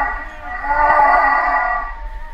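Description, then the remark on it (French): A humpback whale's long, tonal moan sustains with rich harmonics, swelling slightly in the middle against a low rumbling underwater background. No one speaks. “Ça serait au tour de la baleine de me faire une proposition.”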